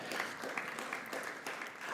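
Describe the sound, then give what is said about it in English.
An audience claps their hands to give God praise, a dense, steady patter of many overlapping claps filling the room for the full two seconds, with no voices audible. “Somebody ought to clap their hands and give God praise for that.”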